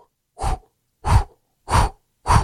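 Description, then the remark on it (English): A voice imitates the whoosh of a heart murmur made by damaged heart valves, as heard with a stethoscope: four breathy whooshes, evenly spaced about half a second apart, moderately loud, with short silences between them. “And then the valves, when you listen to the heart, they make sort of a whoosh,”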